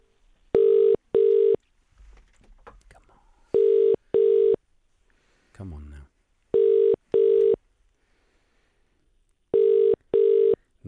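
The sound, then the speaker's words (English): A telephone ringing tone on a call: four loud pairs of short, steady electronic buzzes at an even pace, with brief faint noises in the gaps between them. “Oh, it's ringing. It's ringing. It's ringing. It's ringing.”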